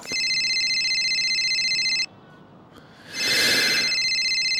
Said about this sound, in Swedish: När det ringer på telefon.